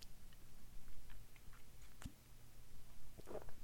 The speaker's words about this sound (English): But Sip a beer for the common man.